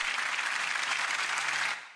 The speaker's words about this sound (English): The crowd burst into rapturous applause.